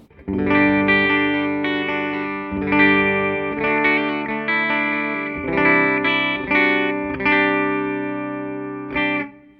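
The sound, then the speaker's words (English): A clean electric guitar tone through an amp with the top cut rolled back and treble set to about noon, strumming sustained chords in a steady rhythm with bright, ringing harmonics and a few new strums every second or so, played alone without talk. “Okay, so honestly, with that amp, I kind of like the sound of that as a clean tone.”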